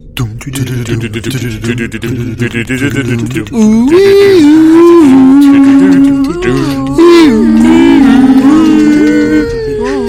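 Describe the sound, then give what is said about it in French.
A single voice loudly sings a catchy TV-series theme-tune melody, starting low and murmured, then breaking into sustained, wavering held notes that rise and fall for several seconds. “Même dans ton générique, on sent que t'es sous les pommes.”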